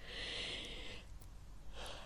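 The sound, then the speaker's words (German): A breathy yawn: a long airy inhale for about a second, a short pause, then a softer rush of breath at the end. No one speaks. “Jetzt musste ich auch gähnen, weil ich so empathisch bin.”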